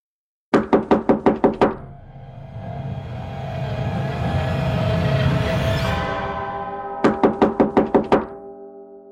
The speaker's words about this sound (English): Something, someone, banged on the door urgently.